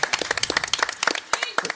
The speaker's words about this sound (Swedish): Du har lite supporters ute i publiken, härligt ju. Ja. Första applåden från publiken, det var ju kul.